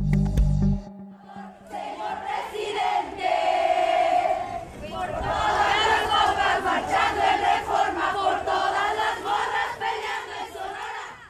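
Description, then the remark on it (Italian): A large crowd of women sings a popular song together at a demonstration in Mexico, their voices loud and sustained, rising into a powerful massed chorus after a brief opening thump. “qui, ad una di queste manifestazioni, le sentiamo cantare ancora una canzone popolare”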